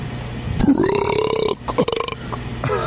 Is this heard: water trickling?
no